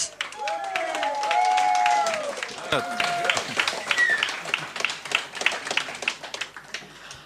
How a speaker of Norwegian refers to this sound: Gi dem en god applaus.